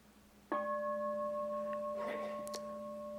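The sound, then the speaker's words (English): A single meditation bell is struck once and rings on with a steady, pure, layered tone that lingers and slowly fades, with a faint rustle partway through the resonance. “Because you don't want anything from the bell.”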